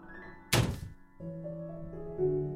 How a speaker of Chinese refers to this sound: 我听到一个微小的撞击声。是从那个木门内传来的。